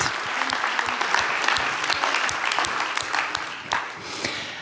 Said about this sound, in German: Wow, vielen, vielen Dank, ihr drei. Das ist euer Applaus. Danke, dass ihr so ehrlich erzählt habt, wie ihr das praktisch lebt.